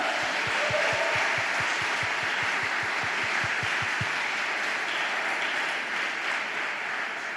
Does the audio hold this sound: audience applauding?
yes